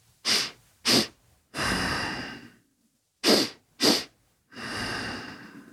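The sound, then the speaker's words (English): Clear nasal breathing repeated twice: two quick, sharp sniffing inhales followed each time by one long, steady exhale through the nose. No talking. “So, what I'm doing there is I'm breathing in quickly through my nose twice, and then I'm breathing out through my nose much longer once.”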